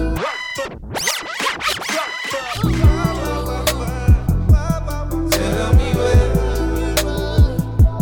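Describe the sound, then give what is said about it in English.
A DJ drop opens with quick back-and-forth record scratches, then a thumping beat with deep sustained bass and steady kick drums takes over, loud. “that's that dope only drop.”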